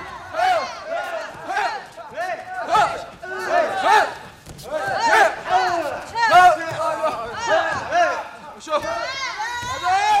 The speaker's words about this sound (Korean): 네, 운동 선수들이 연습하는 소리입니다. 바닥에 쿵쿵 이 매치기, 엎어치기 하는 소리. 유도 선수들.